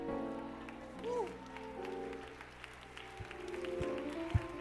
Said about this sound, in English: Come on and clap those hands.